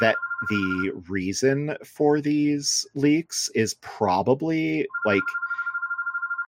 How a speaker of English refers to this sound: And I apologize for that phone ringing. There's simply nothing I can do about it at the moment. I'm just like, is that like a legit phone? Yes, we have a landline here.